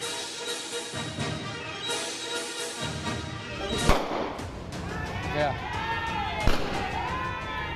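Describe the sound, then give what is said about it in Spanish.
Two sharp gunshots ring out a few seconds apart during a robbery at a supermarket in the western zone, over a busy, noisy background with indistinct voices and some shouting, each bang loud and abrupt against the continuous commotion. “Robo y tiros en un supermercado.”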